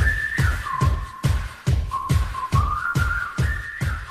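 The theme tune of the TV game show Le Juste Prix: a bright, whistle-like synth melody over a steady, punchy beat that thumps roughly twice a second, upbeat and loud, with no voices.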